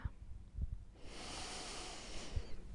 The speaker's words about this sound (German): Okay, lass uns atmen. Zweimal, ganz tief, ja? Okay, noch einmal, bitte.